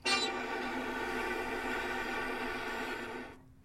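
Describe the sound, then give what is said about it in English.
A viola bowed directly on the bridge, an extended technique, gives one steady, airy tone, breathy and hiss-laden over faint pitch, holding for about three seconds before fading out, alone. “Yeah, you get this amazing air sound.”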